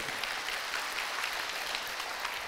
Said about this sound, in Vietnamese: Rồi dành cho anh em chàng vỗ tay thật lớn.